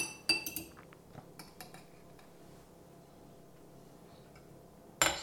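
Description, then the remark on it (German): A glass jar of dried tomatoes is handled and opened: sharp clinks and knocks, a few scattered taps in the first two seconds, a quiet stretch, then a louder clack near the end. “So, das eine Glas war leer. nehmen wir halt das nächste noch.”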